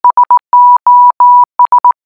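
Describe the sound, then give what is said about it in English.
A single steady high-pitched tone beeps out Morse code SOS: three short blips, three longer dashes, then three short blips again, clear with no voices. “Okay, so that was SOS in Morse code.”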